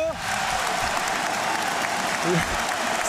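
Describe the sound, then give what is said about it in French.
A large stadium crowd at the Meinau in Strasbourg roars and applauds continuously at the final whistle of a football match between Strasbourg and Marseille. It is a dense, loud wash of cheering and clapping that fills the whole moment, with scattered voices audible within the noise. “Et c'est la fin du match. Écoutez la Méno.”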